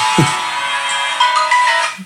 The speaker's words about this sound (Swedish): En jävla fånig signal du har. Ja, det är en jävla fånig telefon också.